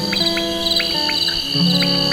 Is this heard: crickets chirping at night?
yes